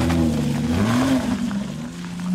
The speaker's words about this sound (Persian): زن ماشینش رو روشن کرد و از برایان تشکر کرد و رفت.